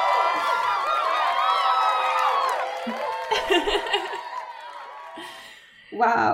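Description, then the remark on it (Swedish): A crowd cheers and whoops together, many voices rising and falling at once, with scattered claps and bursts of noise toward the end as the cheering fades. “Ah, vi måste typ ha applåd och fanfar här känner jag.”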